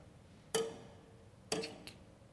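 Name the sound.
clock ticking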